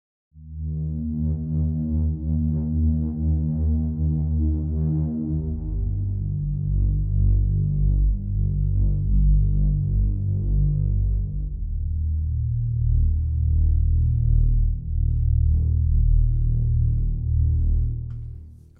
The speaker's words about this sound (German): Und wir hören mal in die Drone Nummer 12 rein.